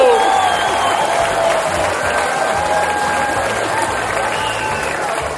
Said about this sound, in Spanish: Un fuerte aplauso para el alcalde de Vigo, Abel Caballero.